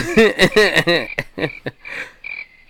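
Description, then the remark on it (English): Loud cricket chirping in a rapid series of raspy bursts, then thinner sustained trills that fade in and out over a few seconds, with no voices. “that's a long cricket sound.”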